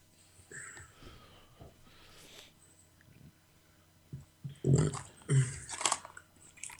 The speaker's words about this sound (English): Eat your jelly bean, fucker.